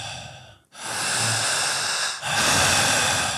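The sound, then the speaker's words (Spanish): Loud, forceful panting breaths in quick succession during a breathing exercise, intense and powerful, each a broad, rushing whoosh of air, separated by brief gaps, with no talking. “Al ir respirando de esta forma”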